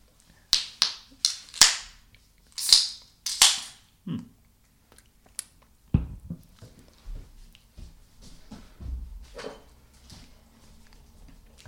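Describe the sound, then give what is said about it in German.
A run of sharp, hissing pops in quick succession as beer bottles are opened, caps snapping off with bursts of fizz, followed by quieter clinks and soft rustling handling noise. “Es klang, es klang schäumiger, als es war.”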